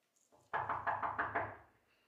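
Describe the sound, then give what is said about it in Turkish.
A rapid series of about five or six firm, loud knocks on a door in a quick steady rhythm, with no voices. “geç açasın kapıyı.”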